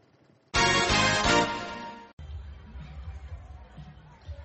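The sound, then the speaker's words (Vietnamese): A loud burst of amplified sound lasting over a second cuts off abruptly, then a low, steady murmur of many people chatting at an outdoor performance and fair in a residential neighborhood about 30 minutes' drive from the center of the US capital carries on, moderately loud and diffuse. “Một khu phố nằm cách trung tâm thủ đô nước Mỹ khoảng 30 phút lái xe, vào thời điểm này, những chương trình văn nghệ và hội trợ ngoài trời như thế này thường xuyên được tổ chức ở những khu phố tập trung dân cư để phục vụ nhu cầu giải trí và thư giãn”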